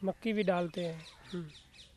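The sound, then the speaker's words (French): Birds call in a temple courtyard in a quick series of harsh, honking cries, with fainter high chirps carrying on behind them as the calls trail off. “C'est pour ça que l'on trouve beaucoup d'oiseaux et d'animaux ici dans la cour du temple.”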